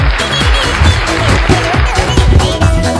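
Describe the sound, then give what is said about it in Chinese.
Loud, sustained applause from an audience welcoming the day's first mic guest on stage, a dense wash of clapping that holds steady for about three seconds, with some lower tonal sounds underneath like cheering or music. “首先，我们热烈的掌声欢迎今今天的第一个麦手闪亮登场。”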